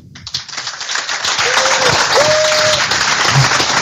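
An audience claps steadily, a dense, loud patter of applause that swells quickly and holds, with a faint whistle or cheer rising briefly over it, for a paddler receiving the award for most improved paddler of the year.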